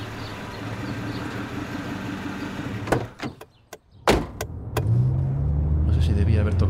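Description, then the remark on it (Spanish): A taxi's engine idles with a steady low rumble in Madrid in March 2020, then a quick series of sharp mechanical clicks and clunks as its door handle is pulled by hand and the door opened, before the engine hum settles back in. “el abridor de la puerta con las manos”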